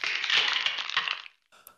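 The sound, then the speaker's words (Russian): Ice cracking on a river in March sunshine: a dense, crackling rush of splintering noise lasts just over a second, then stops, followed by a short, fainter second burst of crackle. “И вот на реке вдруг треснул лед.”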